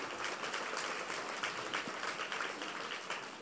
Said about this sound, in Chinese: 让我们再次以热烈的掌声，感恩卢军红台长的慈悲开示。